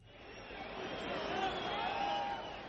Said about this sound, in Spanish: Bueno, ¿a qué se deben esos abucheos?